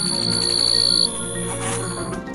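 A steady, high-pitched insect trill, like crickets, holds for about a second and then drops away, leaving a low, continuous ambient drone underneath.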